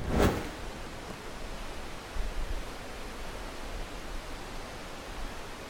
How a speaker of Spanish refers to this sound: Ese escándalo de agua que están oyendo es el salto Techinén. Es un salto que cae como de 60 metros, pero tiene muchísimo, muchísimo caudal.